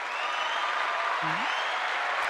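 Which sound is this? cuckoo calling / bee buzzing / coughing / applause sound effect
applause sound effect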